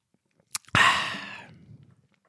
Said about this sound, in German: Ich brauche davor brauche ich einen Schluck Wasser.